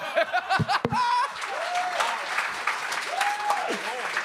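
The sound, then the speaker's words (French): A comedy club audience claps steadily for about four seconds, a dense, even patter of hands, with a few voices calling out and cheering over the applause. “d'ailleurs, il est dans la salle si vous voulez l'applaudir.”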